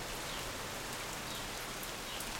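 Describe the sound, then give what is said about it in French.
Steady light rain falling, a soft continuous hiss of drops spread evenly across the whole stretch, fairly quiet and constant with no voices. “Mais on entend la pluie, peut-être sera-t-elle plus forte tout à l'heure.”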